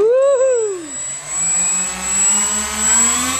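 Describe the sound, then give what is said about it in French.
A radio-controlled model airplane with a dual-control system whines in flight: its high-pitched engine tone sweeps down, then slowly rises again, with a steady buzzing drone throughout and no talking. “C'est parti, il n'y a plus qu'à le faire voler.”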